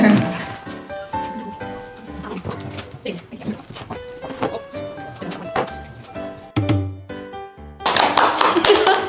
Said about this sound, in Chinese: 不管怎么样，先拍手。